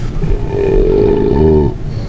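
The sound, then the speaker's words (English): One long, deep belch rumbles loud, holding a low, droning pitch for nearly two seconds before cutting off. No one speaks. “discussing these beers and rating them with those suds ratings plus our signature belching sounds.”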